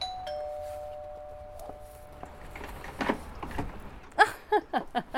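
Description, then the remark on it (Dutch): A doorbell gives a steady electronic tone lasting about two seconds, then gives way to shuffling noises and a quick run of sharp, rhythmic clacks. “Ik stond hier zo serieus te wachten na die bel met die ah, ja, ja, daarop.”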